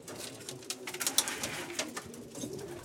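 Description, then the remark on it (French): Several pigeons in a pigeon loft coo softly and continuously in overlapping low murmurs, with faint rustling and scratchy shuffling above them, heard fairly quietly with no talking. “On a la passion des pigeons avec ma fille,”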